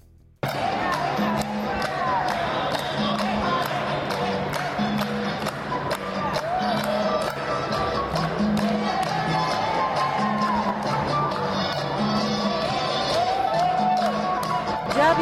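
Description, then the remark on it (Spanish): A loud crowd cheers and chatters continuously at a vaccination center in Mexico City, where people dance cha-cha-cha, with many voices overlapping above a steady, rhythmic dance-music beat that runs without a break for about fifteen seconds. “Así suenan algunos centros de, de vacunación de la ciudad.”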